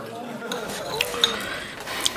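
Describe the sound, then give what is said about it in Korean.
Metal cutlery clinks against dishes several times at irregular intervals as someone eats bibimbap in a restaurant, sharp bright taps over a low murmur of restaurant background noise. “근처 식당에 들어가 비빔밥을 먹으며 수지는 종수가 애들에게 수다를 떤 게 틀림없다는 결론에 이른다.”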